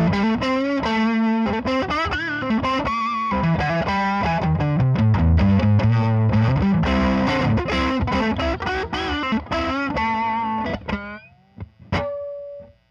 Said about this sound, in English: Th- this pedal handles drive a lot better than most tube screamers.